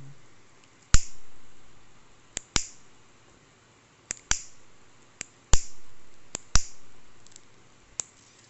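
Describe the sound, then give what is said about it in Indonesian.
A lighter flicked over and over, each strike a sharp click with a brief scratchy tail, coming in an uneven rhythm of about ten tries with no voices. “sabar nih lu dengerin suara korek gue tuh”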